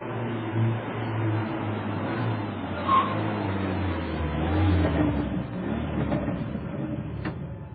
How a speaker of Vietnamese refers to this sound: Gần mười hai giờ trưa, xe hơi xuống sở làm rước ông về. Xe vô sân vừa ngừng.